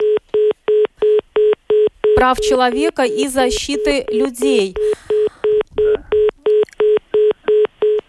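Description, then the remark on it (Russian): A strange telephone beep repeats steadily, about two loud, mid-pitched beeps per second, all the way through. A man speaks over the beeping for a few seconds in the middle. “странный гудок.”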